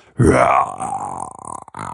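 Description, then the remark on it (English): A voice imitates the roar of Ermenfrau the dragon turtle: a loud, gravelly growl that bursts out, then trails into a long, shuddering low rumble lasting about two seconds, with no words. “you hear a massive kind of like rumble and a roar, like poor Ermenfrau the dragon turtle again has just been internally violated by a blunderbuss.”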